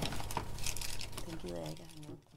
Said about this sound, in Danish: Jeg tager lige en vindhætte på den her, fordi Nå. der kommer lige lidt pust, og det skal der bare komme.